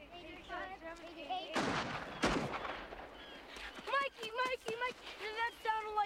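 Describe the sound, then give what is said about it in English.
Two loud, sharp gunshots crack out less than a second apart, with people talking before and after the shots. “Not the big ones that you hear in war movies, but gunshots. Real ones.”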